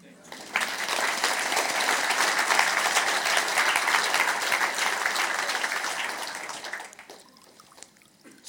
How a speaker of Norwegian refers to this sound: Liten applaus.